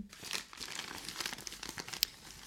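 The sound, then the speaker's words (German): Paper crinkles and rustles steadily as a package is unwrapped, with dense bursts of crackling and one sharper snap near the end, no voices. “Nee, pack mal aus.”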